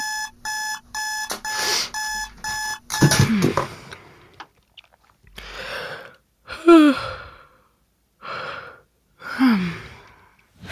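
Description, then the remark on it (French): At 8:15, an electronic alarm clock beeps loudly in quick repeated pulses for about three seconds, then cuts off, followed by drowsy sighs, groans and breaths. “je suis face au premier choix de la journée. Je snooze ou je snooze pas.”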